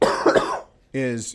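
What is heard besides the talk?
cough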